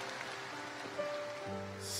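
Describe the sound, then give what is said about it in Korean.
An audience applauds to encourage and bless the remnants across the United States of America, a dense, steady patter of many hands clapping at once, moderately loud and unbroken throughout, with faint sustained tones humming underneath. “And let us give them a round of applause, encouraging them and blessing all the remnants across the United States of America.”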